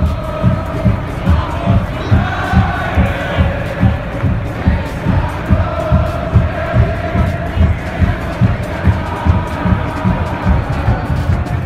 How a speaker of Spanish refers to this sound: Pasan los 15 minutos y arranca el segundo tiempo bajo la lluvia. El Audi Field está completamente mojado, pero la fanaticada sigue gritando, ¡Vamos United!